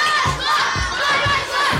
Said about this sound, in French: 150 gamins se bousculent à l'entrée de cette toute nouvelle cantine sociale. C'est une révolution.